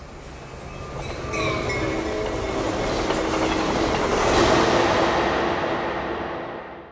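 A subway train running: a steady, loud rumbling roar with thin metallic squealing tones on top, swelling gradually before easing off at the end. No one speaks.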